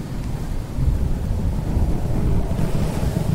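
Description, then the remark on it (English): A stormy roar of wind with deep, continuous rumbling like rolling thunder, loud and steady throughout with gusts swelling and easing. No voices. A sudden night-time storm blowing in over Cleveland in September. “The night before the big release, a sudden storm blew in.”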